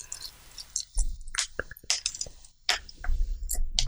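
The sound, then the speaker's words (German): Crackling crunches of eggshells breaking as eggs are cracked open to be eaten, a quick cluster of brittle snaps and softer squishy sounds, with no talking. “Komm, jetzt machen wir mal ein paar Eier auf.”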